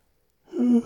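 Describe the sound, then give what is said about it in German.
A short yawn: a breathy intake that swells into a low voiced moan, lasting under half a second after a brief silence, with no talking; triggered by diaphragm tension while the body relaxes. “Jetzt kommt ein Gähnen, also ja, so eine Zwer ja, Zwerchfell in Spannung eigentlich, die dann den Genreflex auslöst.”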